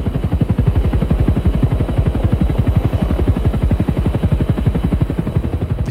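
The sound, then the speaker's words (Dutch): A helicopter packed with Afghan and German personnel roars in flight toward a mission location, its rotor blades thudding in a fast, steady rhythm over a dense engine whine that stays loud and constant throughout. “En we stappen de heli in en we gaan vliegen.”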